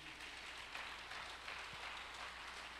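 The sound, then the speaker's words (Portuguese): A crowd claps together in sustained applause for Jesus, a dense, steady patter that sounds fairly soft, with no voices standing out. “Você poderia dar um aplauso a Jesus por isso.”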